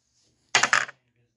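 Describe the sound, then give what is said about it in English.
A brief clatter of dice, the death dice in a game, rolling across a hard surface, a quick burst of several sharp rattling clicks that stops after a fraction of a second, with no talking. “Death dice. Come the on. Please give him a two.”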